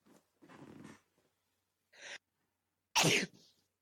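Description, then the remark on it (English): A loud sneeze bursts out after a few short, gasping intakes of breath, ending with a faint trailing exhale. No speech is heard. “Gesundheit.”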